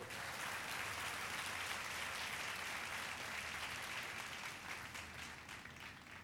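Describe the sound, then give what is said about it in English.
A crowd claps steadily and loudly in applause to the Lord, a dense wash of many hands applauding together that holds throughout and tapers slightly at the end, with no voices standing out. “Give a strong applause to the Lord.”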